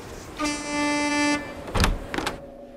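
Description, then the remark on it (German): A car horn blares in one steady, sustained honk lasting about a second, fairly loud, as the driver angrily hits the horn to scare dogs and chickens off the street. A couple of short noisy bursts of street sound follow. “Und alle paar Minuten schlägt ihr Fahrer wütend auf die Hupe, um sie zu verscheuchen.”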